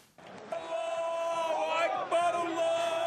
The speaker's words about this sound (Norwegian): Allah er stor, ropte Sahnin-supporterne da de ankom kamp mot Beitar sist helg. Stemningen var amper.